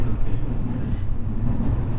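Steady low rumble of a JR West 207 series electric train on a Gakkentoshi Line rapid service between Kyobashi and Kizu, Japan, heard from inside a carriage: a continuous droning roar with faint rhythmic rattling, loud throughout, with no voices.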